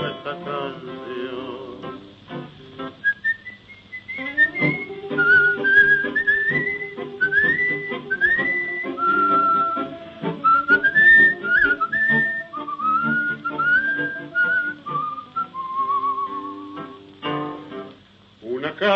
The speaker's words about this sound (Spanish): y un reo meditabundo va silbando